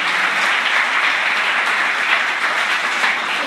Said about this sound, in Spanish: Den un fuerte aplauso a Dios por estas vidas. El día de hoy han entregado su corazón.